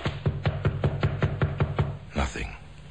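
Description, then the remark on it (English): A man's fists pound the thin panels of the back door of a house in Oxford in a rapid, steady series of about eight loud knocks, followed by a brief rustling thump after a short pause. “nothing but the sound of his own fists beating the thin panels.”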